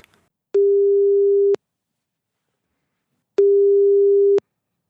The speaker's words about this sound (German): Das ist der Telefonbeantworter